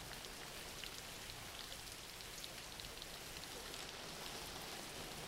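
Steady rain falls without pause, a dense hiss of countless drops pattering on a surface at an even, moderate level. No voices or other sounds break through.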